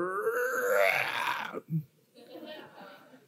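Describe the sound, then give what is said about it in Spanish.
A voice imitates a hungry stomach's growl with a long, loud, warbling groan, then a brief low grunt, followed by quieter murmured vocal sounds. “Hay un tipo de hambre que ella misma tiene su propia voz y suena más o menos así como”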